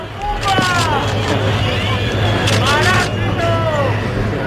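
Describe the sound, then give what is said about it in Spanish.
A large outdoor crowd boos and jeers at Sánchez on his arrival at the Armed Forces military parade for the October 12 national holiday: many overlapping drawn-out voices rising and falling together over a steady low rumble, loud and continuous throughout. “Y en las celebraciones del 12 de octubre, fiesta nacional, Sánchez era recibido con abucheos este martes en el desfile de las Fuerzas Armadas a su llegada y también cuando se marchaba.”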